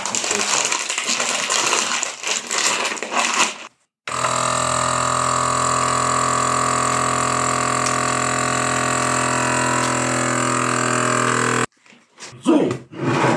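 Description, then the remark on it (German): A vacuum sealer pump vacuum-sealing pieces of meat runs for about eight seconds as a loud, steady motor hum, then cuts off abruptly. Crinkly plastic rustling comes before and after it. “Äh, ja, jetzt haben wir alle Stücke einvakuumiert.”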